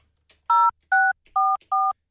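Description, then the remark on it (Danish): Four crisp telephone keypad tones beep in quick succession as a call is placed to reach a quiz participant, each a steady two-pitch dual tone lasting about a fifth of a second, loud with short gaps between them and no talking. “For det rigtige svar, hvis man tager telefonen”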